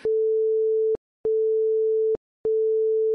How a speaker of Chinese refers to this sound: 后来发现啊，其实德国人发射了两束并列的无线电波，一束呢是短促的滴滴声。 另一簇是很长很长的滴滴这种声音。